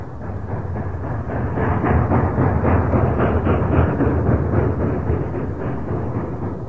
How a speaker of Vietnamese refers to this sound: Tôi ngủ được một giấc ngon Trong tiếng xình xịch đều đặn của xe lửa về đêm